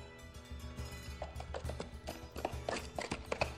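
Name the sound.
horse hooves clip-clopping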